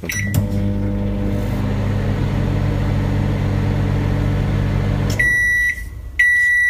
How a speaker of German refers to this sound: ich dachte jetzt eher, weil ich die Currywurst gerne hätte. Ach so, war das eine Bestellung? Ja, bitte. äh, Mache ich gleich. Äh, ich habe dir hier eine Mikrowelle, machen wir gleich.